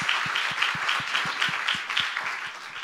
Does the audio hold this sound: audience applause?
yes